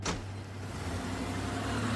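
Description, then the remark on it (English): A car door shuts with a short thud as Jason gets back in his car outside the security gate of the Myers home at night, then the engine hums steadily as he drives off, a low continuous drone with no voices. “Jason gets back in his car and drives off with no idea just how close he came to death that night.”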